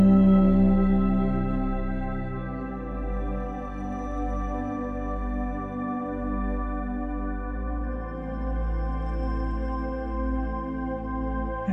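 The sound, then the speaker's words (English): A single long, low chanted hum held steadily for about twelve seconds, a rich droning vocal tone with no speech around it: the throat chakra mantra "Hum" being chanted. “And as you speak this chakra mantra, it begins to clear your throat energy.”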